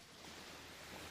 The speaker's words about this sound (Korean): 들리시죠? 파도 소리